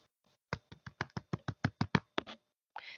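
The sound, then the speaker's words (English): A quick run of about a dozen sharp knocks on a door, fairly loud in a steady rhythm, followed by a brief pause and the start of another sound. “They heard a tap at the door.”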